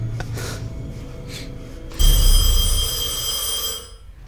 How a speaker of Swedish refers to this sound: Ring, ringde det på dörren då? Nej. telefoner som ringer.